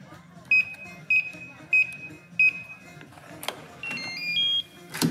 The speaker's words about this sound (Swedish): Han slog in koden på dörren till lägenheten och klev in i den ljusa moderna fyrarummaren